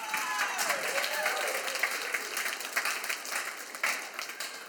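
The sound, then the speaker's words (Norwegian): An audience bursts into steady applause for a man, many hands clapping in a dense, hissing wash that holds for several seconds before gradually thinning out. “Ja, gi han en applaus.”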